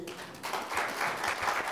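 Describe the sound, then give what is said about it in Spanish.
A church audience breaks into applause for Jesus, a dense wash of many hands clapping that swells after a quieter start and stays steady and fairly loud, with no voices standing out. “Den un aplauso a Jesús.”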